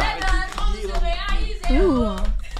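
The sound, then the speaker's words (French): A few people in a studio clap in a loose, uneven patter at the close of a talk with a guest while several voices talk and exclaim over it, the claps sounding as sharp taps partly buried under the chatter. “Ah, bah, déjà, moi, j'ai envie d'applaudir tous vos rêves.”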